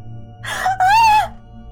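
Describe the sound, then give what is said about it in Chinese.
A woman's short scream as she wakes from a nightmare and sits up in bed: a breathy gasp that breaks into one loud, high-pitched cry lasting under a second, over a low steady background hum. “一声尖叫，贺婉婷从床上坐起来，又是一个噩梦。”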